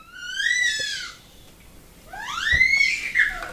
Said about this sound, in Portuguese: Esse apito que vocês estão ouvindo é da minha filha, porque ela está muito alegre, porque nós estamos chegando no Êxodo.